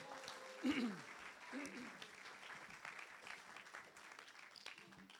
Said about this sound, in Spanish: Vamos a dar un aplauso al Señor si, Dios está hablando.